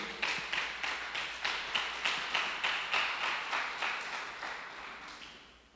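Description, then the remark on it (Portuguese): A church crowd claps for the Lord in a steady, unified rhythm, about a dozen sharp beats in quick succession, then the applause thins and fades out. No one speaks. “Dá um aplauso ao Senhor pela sua vida aí.”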